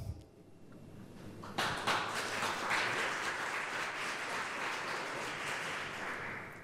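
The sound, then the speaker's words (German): An audience bursts into applause after a brief quiet lead-in, many hands clapping in a dense, steady patter that holds at an even volume until the end, applauding to vote for who should interview a celebrity guest. “Bitte Applaus.”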